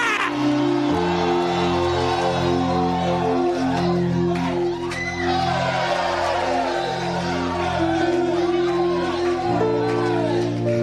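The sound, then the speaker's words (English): A loud audience shouts and cheers in praise of the Lord in a continuous, overlapping roar of many voices, carried over sustained organ or keyboard chords that shift now and then. “Give the Lord a shout.”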